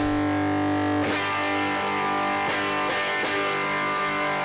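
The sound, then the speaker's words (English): Electric guitar played through a Joyo Overdrive pedal and a compressor, thick sustained distorted, fuzzy chords ringing with dense harmonics, with a few sharp re-struck attacks cutting through at intervals. No voices. “If you guys are wondering what I'm using, I'm using a Joyo Overdrive.”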